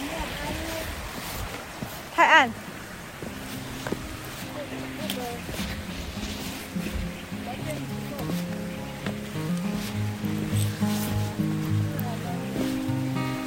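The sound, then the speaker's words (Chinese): Small waterfalls on a mountain trail flow with a steady, broad rushing hiss that continues underneath, while several people talk over it and a brief louder burst cuts in early on. “好多小小小瀑布，小小瀑布。”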